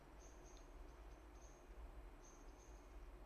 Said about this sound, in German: Wollen wir mal kurz ganz leise, dann kann man draußen die Grillen vielleicht hören.